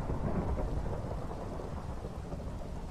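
Steady, dense rain pours throughout while a deep, continuous thunder rumble rolls underneath, heavy, with no voices present.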